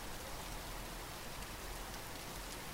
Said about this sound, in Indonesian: Rintik dan deras hujan menjadikan bumi penghujung bulan Juni mengeluarkan bau tenang.